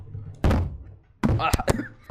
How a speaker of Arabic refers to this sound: ماك بس بس سوي ماك دروب